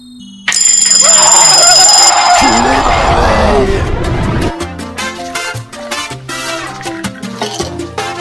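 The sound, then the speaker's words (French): A short morning radio show jingle, played quietly, starts suddenly with a bright, ringing alarm-bell flourish, then shifts into rhythmic, punchy music with no one talking over it. “Donc je vais mettre le jingle. discrètement le jingle, discrètement.”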